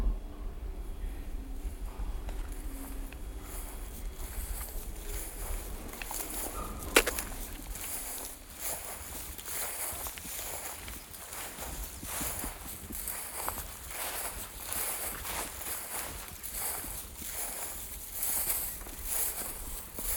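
Steady footsteps crunch along an outdoor path in the Oostvaardersveld at an even walking pace, moderately loud, with a single sharp click partway through and soft wind noise underneath.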